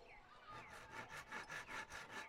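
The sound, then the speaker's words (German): Children and teenagers saw wood by hand in a large garden with old trees and painted construction trailers, steady back-and-forth strokes, about eight rasping pulses in quick rhythm, fairly loud. “Hier wird es immer mal wieder richtig laut, wenn Kinder und Jugendliche hämmern, sägen und abends gemeinsam am Lagerfeuer singen.”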